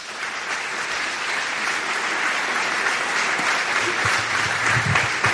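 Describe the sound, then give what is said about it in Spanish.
Sustained audience applause, a dense wash of many hands clapping at steady loudness for several seconds, with a faint voice briefly audible underneath near the end. “Un gran aplauso”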